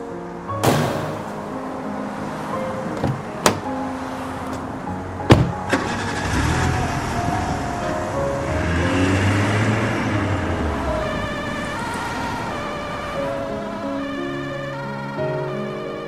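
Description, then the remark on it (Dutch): An ambulance engine starts up with a few sharp clunks, then the ambulance pulls away as its siren rises and wails in a steady rhythm, loud, with no one talking. “Kelly, je gaat nu mee met de ambulance.”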